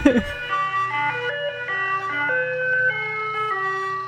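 A tinkly electronic ice cream van jingle, the recognition melody a van plays as it drives around once a week, a simple stepping melody of sustained tones, steady and fairly loud, with a brief burst of noise at the very start.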